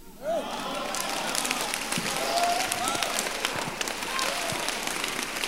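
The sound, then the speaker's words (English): An audience claps steadily for several seconds, a dense, even wash of many hands, with a few faint voices calling out over it. “The Lord bless those who are clapping for him and they will have a testimony to share.”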